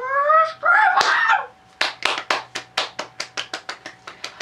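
A short burst of applause: after a brief vocal whoop, a single pair of hands claps in a steady, quick rhythm, about fifteen sharp claps that gradually soften toward the end.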